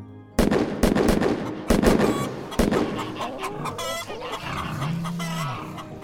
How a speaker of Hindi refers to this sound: उसने झट से बंदूक उठाई जो कि हमेशा उसके सोने के कमरे के कोने में रखी रहती थी और अंधेरे में छह गोलियां दाग दी